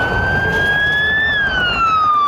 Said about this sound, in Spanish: Sonaban las sirenas, volaban los helicópteros, un fuerte despliegue de patrullas oficiales